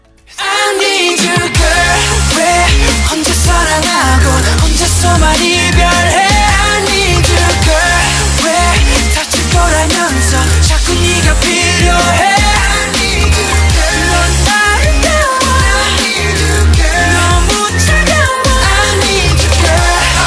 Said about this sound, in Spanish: la cual fue nombrada por Billboard como una de las mejores canciones de la década del K-pop. Así que vamos a escuchar un poquito